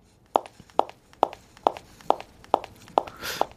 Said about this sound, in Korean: 무슨 소리일까요? 네, 또각또각 걸어가는 구두 소리랍니다.